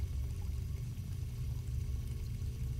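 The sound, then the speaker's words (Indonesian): A steady, continuous rush of running water from a sink faucet at a washbasin in a shopping mall restroom at night, with a full, low-heavy flow that holds an even level without pause from start to finish. “Tapi saat dia sedang membersihkan bilik toilet paling ujung, dia mendengar suara air mengalir dari keran di wastafel.”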